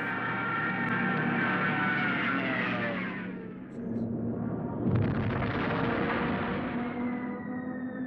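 A loud, continuous rumbling roar of a bombing raid, with droning tones sliding downward, a brief dip, then a sharp burst that swells the din again. No one speaks.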